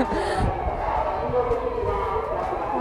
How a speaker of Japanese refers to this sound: 騒がしい音が本当だ何ですかねあここ病院が近くにあるからじゃないですか目白病院のとこですね救急車あ違うパトカーでした結構急いでますね